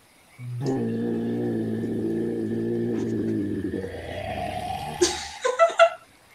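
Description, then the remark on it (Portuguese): A deep, sustained grinding rumble of stone being moved, heard behind the listeners after two levers are pulled down, drones for about five seconds, then breaks into a few short, sharp scraping thuds before falling silent. “um barulho de pedra sendo movida.”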